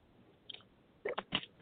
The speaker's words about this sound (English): Sorry, I have to take a swig of water.